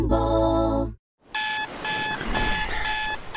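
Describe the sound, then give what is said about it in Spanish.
A morning alarm clock goes off: a loud, harsh buzz for about a second, a brief silence, then insistent high-pitched electronic beeping pulsing rapidly. No one speaks. “Imagínate tus mañanas, pero sin el ruido del despertador.”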